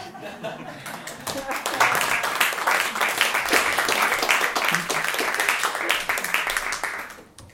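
A crowd applauds steadily for several seconds, a dense patter of many hands clapping that swells after a moment, holds, then fades out near the end, with a few scattered chuckles mixed in.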